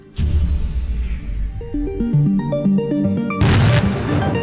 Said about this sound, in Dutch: En zo worden al die centrales één voor één gesloopt. Een proces van jaren.